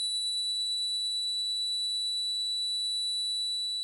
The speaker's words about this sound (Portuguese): Ele é um tinido, um tomzinho.